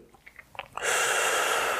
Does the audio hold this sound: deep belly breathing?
yes